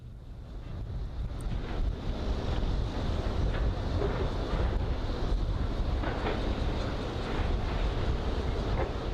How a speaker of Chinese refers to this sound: 我们来看看，这是一段在征收范围的开发堆土机的一些声音，可能这也受到一些影响。来听听。